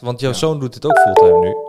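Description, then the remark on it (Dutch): A loud mobile phone ringtone, steady electronic tones that cut in partway through and overlap a person talking, then keep ringing to the end. “dat was mijn telefoon. Die kwam uh, vrij binnen hier.”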